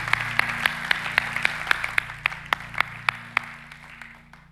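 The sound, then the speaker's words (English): Congregation applause for the Word of God at a morning service, with sharp, evenly spaced claps ringing out over a steady crowd wash and a sustained low musical drone, gradually fading toward the end. “Come on, put your hands together for the Word of God this morning.”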